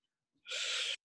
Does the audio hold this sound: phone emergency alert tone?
no